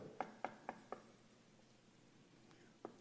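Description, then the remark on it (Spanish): Four quick, evenly spaced knocks on a wooden door, fairly close and crisp, followed by a pause and then a couple of softer, scattered taps. “Y Jesucristo dice, yo estoy ya en la puerta. ¿En la puerta de qué? Pues en la puerta de nuestra vida. Y estoy tocando.”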